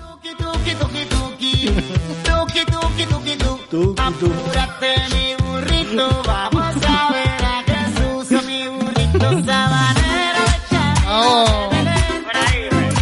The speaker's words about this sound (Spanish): Entonces, eh, se atrevió un día a hacer un villancico que telita marinera.